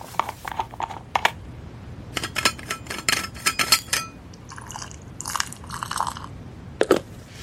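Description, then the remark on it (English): Clicks and clinks of a thermos lid being twisted open, followed by a short splashing pour of eggnog, with a few more sharp taps at the end. “I, I actually have a thermos of eggnog here.”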